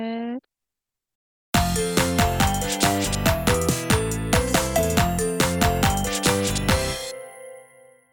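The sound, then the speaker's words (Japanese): A phone rings with an incoming call, a loud melodic ringtone of rapid repeating electronic notes, playing for about five seconds after a brief bit of voice and a pause, then fading out. “次女さんがちょっと電話かかってきたので、ではこれでえー、終わりにします。”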